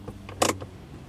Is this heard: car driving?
yes